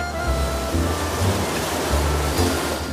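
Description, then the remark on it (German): Ocean waves rush onto a shore in a steady, full roar of surf, swelling in soft surges every second or so, fairly loud, with no voices. “wieder den Sand unter den Zehen zu spüren, Meerrauschen, italienische Luft einzuatmen.”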